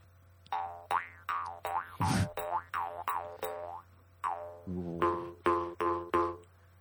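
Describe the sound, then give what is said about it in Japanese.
A jaw harp twangs in a quick, bouncy rhythm, about a dozen resonant boing notes with wah-like swooping overtones over a steady low drone, played with no talking. “「口琴」とはなんぞや”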